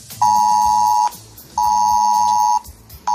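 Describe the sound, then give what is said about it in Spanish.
A loud, steady electronic tone repeats in long bursts of about a second each, separated by short gaps: a mobile phone's civil protection emergency alert, sent by radio frequency, beeping insistently. “Oirá un pitido.”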